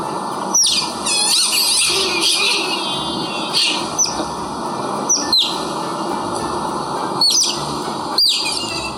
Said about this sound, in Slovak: Ono to miestami možno pripomína štebutajúceho vtáčika, ale v skutočnosti sa jedná o naše vidry malé. A prečo sa takto ozývajú? Tak ako ja, tak aj naše vidry vidia, že už sa sem blíži naša pani chovateľka.